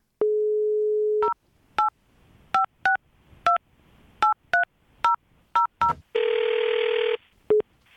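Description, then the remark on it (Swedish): A telephone call to an insurance company: a steady dial tone, then about ten quick keypad beeps in an uneven rhythm, followed by a loud, buzzy ring tone and one final short beep. Clear, with no talking. “i höstas så ringde han ett försäkringsbolag för han ville försäkra en båt som redan har varit med om en olycka.”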